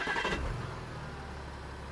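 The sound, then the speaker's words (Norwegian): A woman's car engine cranks and catches with a brief rough burst, then settles into a steady low rumble as she drives away down the street, with no voices. “nå kjører hun.”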